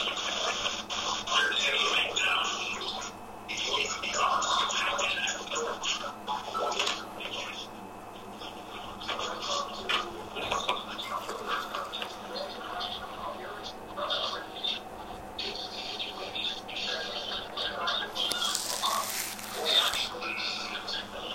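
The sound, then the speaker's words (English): A television blares steadily for the whole stretch, a dense jumble of broadcast voices and sound, with a brighter, hissy burst swelling briefly near the end. “What's that noise in the back, D? What's all of that, man? Turn that TV down, bro.”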